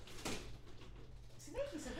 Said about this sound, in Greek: να κλείσει την πόρτα γιατί μπήκε το γατί.